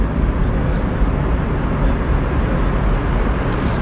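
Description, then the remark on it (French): A subway train roars into a station, a loud, steady rumble of wheels and motor filling the space, with brief hissing bursts breaking through on top. “Bon, le métro arrive.”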